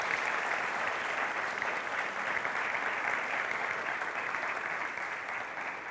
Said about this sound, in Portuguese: Eu queria pedir mais palmas aí nessa manhã.